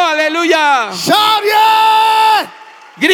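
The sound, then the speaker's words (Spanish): Loud, exuberant voices of a worship crowd shout hallelujah and hold long, ringing notes in a rising, sustained cry, then break off briefly before another burst begins. “Shout Grita, aleluya. Shout oh,”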